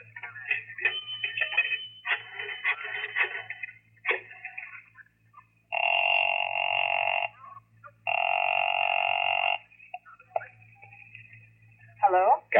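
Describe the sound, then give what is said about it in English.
A 10-cent coin clatters into a payphone, then a run of dial clicks, followed by two long, steady ringing tones on the line over a low background hum. “I stopped to look up an address in the phone book, and then I invested 10 cents.”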